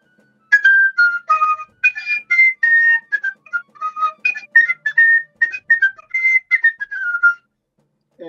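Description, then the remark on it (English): A shrill fife plays a brisk reveille tune, a camp duty call, with quick, bright notes in a continuous bugle-call pattern for several seconds, loud, with no talking. “So, um, what would, for example, what would a reveille sound like?”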